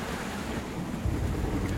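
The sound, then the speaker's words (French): Rough sea waves churn and roar continuously alongside gusting wind, a dense, steady wash of noise with a deep low rumble and no voices. “Dans cette grande tempête et cette lutte contre vents et courants, les navires subissaient de grands assauts de la mer et des vents.”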